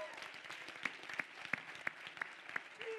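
An audience applauds steadily as a man is called to the front of the stage, a dense patter of many hands clapping, with a few sharper, louder claps standing out at a regular beat on top of the wash.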